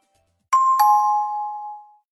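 A short two-note electronic chime, struck twice in quick succession, with bright tones that ring out and fade over about a second and a half. No one speaks.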